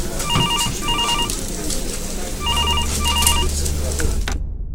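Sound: telephone ringing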